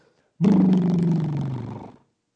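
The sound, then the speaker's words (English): A voice makes a loud, buzzy, rumbling drone imitating a lawnmower engine mowing a backyard lawn at 6:30 in the morning, starting abruptly and holding for about a second and a half as the pitch slowly sags before cutting off. “And we hear the lawnmower, and it's...”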